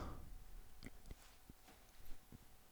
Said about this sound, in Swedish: Man kan höra klockan ticka i bakgrunden. det betyder att ingen har någon aning.